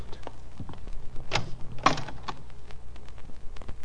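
A closet door with a mirror on it creaks and thuds open, with a couple of short knocks and scrapes in the middle of the moment, set against a low steady background hum; no one speaks.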